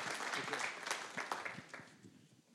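A crowd applauds to welcome a speaker, with dense, steady clapping that gradually fades toward the end, the many overlapping claps blending into a continuous patter.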